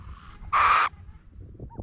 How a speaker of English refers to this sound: Confederated Tribes of the Umatilla Indian Reservation, the burrowing owl holds a special significance. These burrowing owls are, are highly important to our tribal culture, and we recognize them as being a very important animal in this ecosystem.